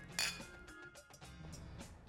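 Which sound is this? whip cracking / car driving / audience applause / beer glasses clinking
beer glasses clinking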